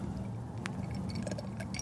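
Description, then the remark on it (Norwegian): A glass clinks a few times as someone takes a big sip of water, with light handling noise and a low background hum. “Tar en stor sup vann.”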